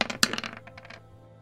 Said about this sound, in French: Donc là, je jette 2d6 plus 2 du coup.